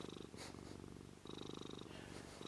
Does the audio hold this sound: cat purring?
yes